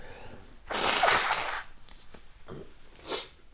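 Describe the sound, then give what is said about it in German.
A loud honk of someone blowing their nose, one long noisy burst followed by a couple of shorter, softer snorts and sniffs. No one speaks. “Ah, doch mal einmal Nase putzen.”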